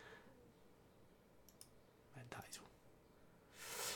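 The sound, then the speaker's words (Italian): Quiet computer mouse clicks: a couple of faint ticks, then a short cluster of sharper clicks, followed by a brief hissy scraping rustle as the mouse slides, with soft murmuring in the background. “Sto a muovere mouse, mi stai a muovere a sedia.”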